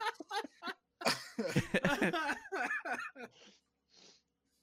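A person coughs in a close, harsh fit: several quick bursts, then a longer strained stretch, trailing off into a couple of wheezy, breathy gasps.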